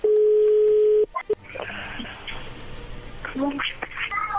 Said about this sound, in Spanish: Bueno, ya entró la llamada, no haga ruido.